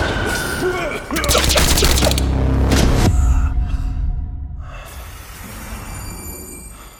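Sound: gunfire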